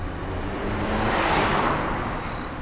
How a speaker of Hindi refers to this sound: एक सुनसान हाईवे पर एक कार तेज गति से दौड़ी जा रही थी